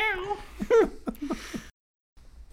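A cat gives a couple of drawn-out, wavering meows, fairly clear, followed by a short pause of quiet.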